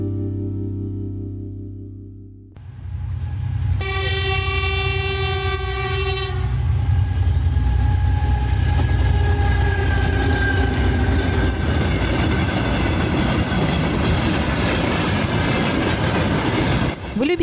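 A train rumbles along the rails, its deep, steady roar filling the scene, with a loud horn blast sounding early on and faint rhythmic clatter of wheels underneath.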